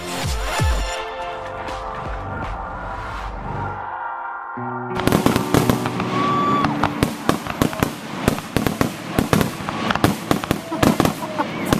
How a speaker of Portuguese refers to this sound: Eu não sei se você ouviu, não sei se você percebeu, mas este podcast começou com fogos explodindo no céu deste mundo, deste universo